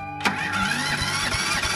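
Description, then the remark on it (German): An old car engine is started, cranking and catching abruptly, then runs with a rough, grinding mechanical rattle and irregular knocks as third gear is crunched in and the car stalls three times, loud, with no voices. “ließ Chiara den alten Motor an, legte krachend den dritten Gang ein und wirkte den Wagen dreimal wieder ab”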